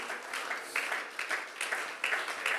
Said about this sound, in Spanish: Alguien que tenga esa esperanza puede aplaudir la presencia más importante que hay en este lugar, la presencia de Dios.